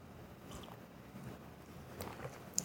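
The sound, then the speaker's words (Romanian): Someone takes a quiet sip of water: soft, wet mouth sounds and a small swallow, with a faint click near the end and no talking. “să iau o gură de apă.”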